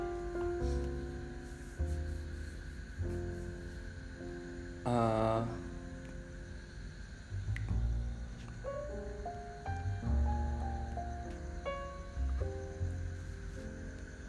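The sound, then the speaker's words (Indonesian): Wind buffets the microphone in repeated low, rumbling gusts that rise and fall throughout, with a brief hesitant murmur from a voice. “aduh sorry angin bangsat”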